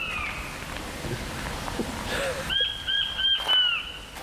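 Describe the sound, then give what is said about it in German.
Small king quails give thin, high whistling calls, a faint one early and a repeated string of piping notes in the second half, over a steady rushing background hiss. “Das sind die Zwergwachteln.”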